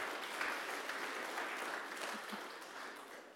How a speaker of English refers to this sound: Not impressed with that? Just, the first service applauded.